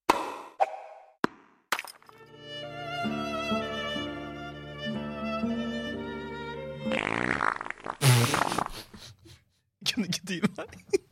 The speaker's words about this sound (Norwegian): Var det tull på slutten? Nei, altså det, Fisen har ikke noe med årstall å gjøre.